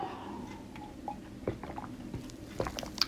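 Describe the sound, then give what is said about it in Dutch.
Quiet sips of water: a few soft wet slurps and small mouth clicks and swallows, scattered irregularly over a few seconds, with no talking. “Ik pak ondertussen trouwens even een slokje water.”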